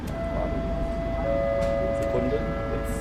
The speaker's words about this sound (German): Jetzt hören wir hier das Klingeln im Hintergrund. Was heißt das für dich jetzt? Das heißt für mich jetzt, dass das Gebäck aus dem Stickenofen kann und soweit fertig ist.